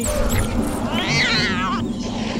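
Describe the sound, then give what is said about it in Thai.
A single drawn-out meow from a big cat rises and then falls in pitch, loud, set against a steady low background rumble. “เจ้าหนูตัวเล็กก็กลายเป็นแมวตัวใหญ่”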